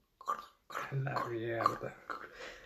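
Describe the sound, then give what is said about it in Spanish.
A voice imitates the crinkly rustle of a chip bag being torn open, a short burst then a longer drawn-out crackling sound, fairly loud. “Y entonces esta niña abre sus papitas que y está en la mejor momento y de la nada escuchas el...”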